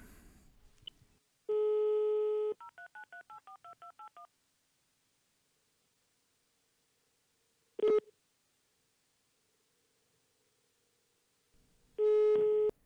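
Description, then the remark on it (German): A phone line tone sounds for about a second, then a quick run of about eight dialing beeps as a number is called from the phone's contact list, followed by a lone ring burst and another ringing tone starting near the end, with no one speaking. “Aber ich habe nicht so viele Menschen mit AX hier am Telefonbuch, deswegen geht das relativ schnell.”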